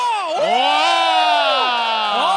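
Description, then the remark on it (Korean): A live audience at a Kkoltong Show event, who came out on a hot day, cheers and shouts at once on request, a sustained roar of many high-pitched voices layered together, loud and steady for a couple of seconds without pause. “함성 한번 불러주세요.”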